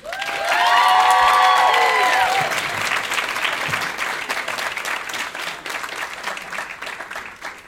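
An audience bursts into loud, sustained applause welcoming a performer to the stage, with a few high whoops and cheers rising early on, then the clapping carries on steadily as a dense patter for several seconds.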